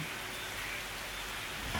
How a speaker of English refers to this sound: We know that sensation of pouring rain, whether stormy or cleansing.